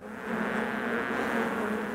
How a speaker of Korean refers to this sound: 그러자 수많은 벌들이 윙윙거리면서 벌통에서 나와 꿀이 묻어있는 사또의 입으로 달려들었어요. 그리고 벌들은 사또의 입과 얼굴과 온몸을 쏘아대기 시작했어요.